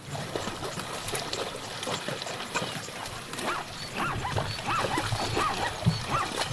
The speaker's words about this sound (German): Das hier sind Zebras, die in Ufernähe durchs flache Wasser laufen.